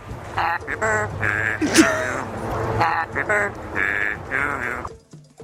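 A trained parrot named Alex imitates a duck, letting out a rapid series of loud, nasal quacks, several calls in a row with brief pauses between them.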